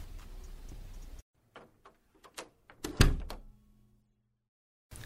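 A door opens and shuts as someone leaves: a run of latch clicks and rattles, then a solid thump as it closes, a few more faint clicks and a short hum after. No one speaks.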